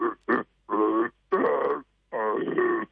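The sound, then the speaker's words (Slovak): A man imitates a deer or bear call with four loud, throaty vocal bursts, the first very short and the rest longer and drawn out, separated by brief silences. “Občas aj jelena napodobňujem, aj medvedia.”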